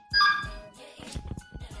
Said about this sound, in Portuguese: É, opa, olha o telefone tocando aí.